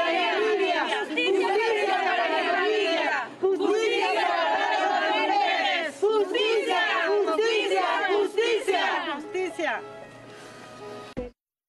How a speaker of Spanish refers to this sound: un nudo en la garganta escuchar, ¿no? El, grito de, de justicia y, ojalá hubiera justicia para todas las mujeres